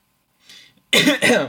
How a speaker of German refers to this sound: äh, ich wollte was gerade was sagen und habe husten müssen.